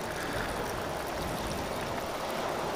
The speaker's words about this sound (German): Es ist einfach nur noch Wellen, so ein bisschen.